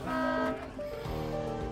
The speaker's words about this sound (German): Er springt auf den Fahrersitz und beginnt zu hupen.